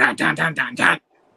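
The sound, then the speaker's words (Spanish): A voice imitates a quick rock guitar riff, five punchy, evenly spaced notes in a tight rhythm, loud, then stops abruptly into near silence. “ese riff, todo el mundo lo conoce y lo identifica y dice, eso es rock.”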